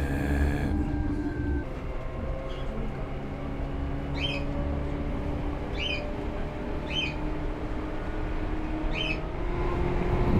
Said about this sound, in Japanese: 鳥が紛れ込んだのかあるいは誰かが鳥を持ち込んだのか分かりませんが鳥の鳴き声がしますああ一人おじさんが鳥かごみたいなものを持っているので彼の何らかの小さな動物の鳴き声だったんでしょう。